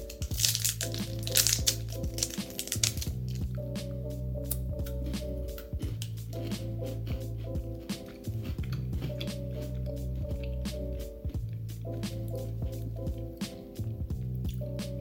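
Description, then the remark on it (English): Crisp crunching and moist chewing as a bitter matcha-flavored Kit Kat wafer chocolate bar is bitten and eaten, with sharp crackly clicks repeating throughout over a steady background of soft music. “There's a lot of crunch.”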